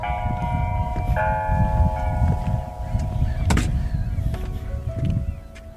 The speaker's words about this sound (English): We walked up to this lake, it was a frozen surface, and I looked over, maybe four, 500 metres away, there's a beautiful Orthodox church, and I could hear the bells.